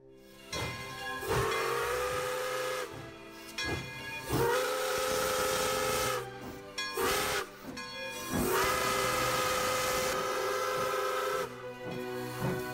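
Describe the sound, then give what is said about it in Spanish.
A steam engine lets out several long, loud whistle blasts, each with a sustained tonal shriek over a rush of hissing steam, separated by brief pauses and chuffing bursts. “Se inventó la máquina de vapor, el ferrocarril y los barcos a vapor.”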